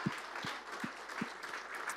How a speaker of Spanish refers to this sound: Puede darle un fuerte aplauso de alabanza al Señor. Eso es.